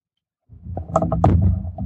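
Muffled handling noise from a microphone stand: a low rumbling scrape with several quick knocks and clicks as something is being screwed onto it, with no voices.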